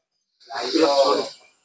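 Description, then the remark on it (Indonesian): A single drawn-out breath through the left nostril, with the right nostril closed, during a breathing exercise: a steady airy hiss lasting about a second that swells quickly and then trails off, with no talking over it. “Kemudian kita nafas nih.”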